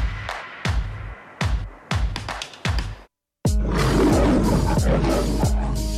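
A loud big cat roar fills the second half, coming after a run of heavy, booming hits and a brief pause of silence. No one speaks.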